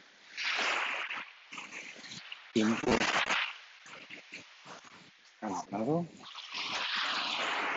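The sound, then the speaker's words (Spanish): Soft, steady washes of calm seawater lapping at the shore in the early morning, rising and falling in gentle hissy swells, with a man briefly speaking between them. “El mar está calmado.”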